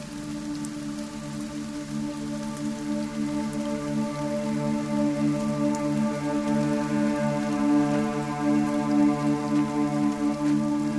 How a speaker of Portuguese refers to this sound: Vamos entrar, a chuva está começando, ele diz, andando até a entrada.